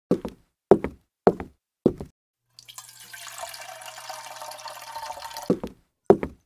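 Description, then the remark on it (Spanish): Water is poured into a glass for a drink in a steady stream for about three seconds, preceded by four evenly spaced sharp knocks and followed by two more clunks. “Bien, venga el agua.”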